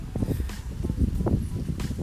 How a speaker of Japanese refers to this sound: なんだろうなこういう滝の音とか聞きながらねちょっとぼーっとしてみるこれ滝だから滝なの滝の音だよ滝の音とか聞きながらぼーっとしてみるとかね